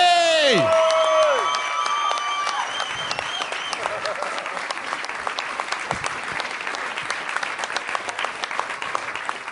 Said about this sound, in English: Big round of applause for Jarrod Rebecchi, attorney at law. Welcome, Ryan Moloney!